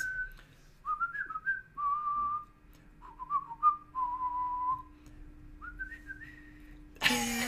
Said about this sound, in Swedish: Det tar jag med en glad vissling. Mio Mio-låten tänker jag.